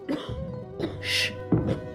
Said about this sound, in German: Eines Mittags hörte ich ein leises Husten.